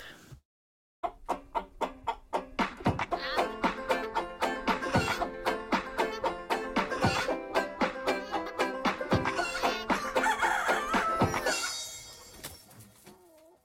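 Chickens cluck steadily in a busy, overlapping flock, with a rapid series of sharp, rhythmic clucks running throughout and a rooster crowing among them, then fading out at the end. No one speaks.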